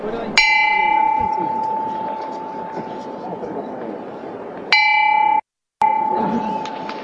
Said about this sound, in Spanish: Y se levanta el tercer toque de campana entre los aplausos del pueblo de Jaén que está aquí en la Plaza Santa María.